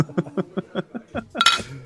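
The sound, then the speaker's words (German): Glasses clink together in a toast, one bright clink with a brief ringing tail, coming right after a run of quick, rhythmic laughter. “in dem Sinne. Prost.”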